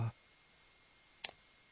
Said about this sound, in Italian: Stavo, scusatemi, stavo facendo due cose in una perché sto cercando di mettere a posto il nostro orologio dello studio che mi segna le 7 e 3 minuti. C'è qualcosa che non funziona, evidentemente sono le batterie che sono saltate,